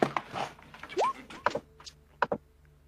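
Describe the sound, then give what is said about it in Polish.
A door being closed: a brief rising squeak, then a couple of sharp knocks and a final latching click, with no voices. “Na ciebie sekundę, tylko drzwi zamknę, bo ja plekator wrzuci.”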